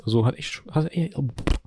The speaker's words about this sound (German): Gesundheit.